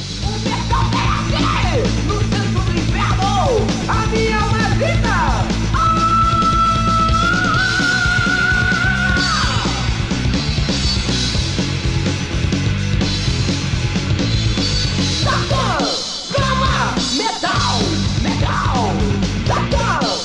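Loud, dense heavy metal music plays throughout, with distorted guitars, pounding low end and harsh shouted vocals, briefly dropping out for a moment near the end before crashing back in.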